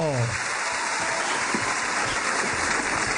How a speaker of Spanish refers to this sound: Mejor demos la bienvenida al grande, al más grande de los grandes. Un fuerte aplauso para el señor Alfonso Lizarazo.